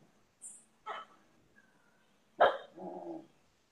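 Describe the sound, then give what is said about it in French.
A sacred dog, alone, barks a few times in the ashram of Ramana Maharshi, short sharp yelps followed by a longer, rougher bark near the end, with quiet pauses between them. “Un chien sacré, on est dans l'ashram de Ramana Maharshi.”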